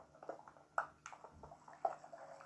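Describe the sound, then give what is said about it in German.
Quiet, irregular water drips and trickling from water overhead in a video game, with a few sharper plinks standing out against a soft, continuous watery background, low in level. “über mir ist Wasser.”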